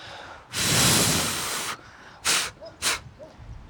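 Someone blows on a dandelion seed head in windy weather, first one long, breathy whoosh and then two short, sharp puffs, blowing the fluffy seeds off.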